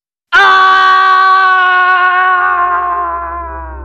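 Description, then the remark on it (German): A man, a mad professor, lets out a single long, sustained last scream heard from a distance, slowly sinking in pitch and fading slightly, with an echoing, processed quality and a low rumble creeping in underneath toward the end. “In der Ferne hören sie trotz all dem Lärm noch einen letzten Schrei des irren Professors.”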